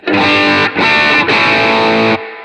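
A heavily overdriven, distorted instrument, with the drive's mode switch set around one o'clock, plays three sustained, buzzy chords with brief dips between them, loud and thick with harmonics, then cuts to a quieter, thinner tone at the end.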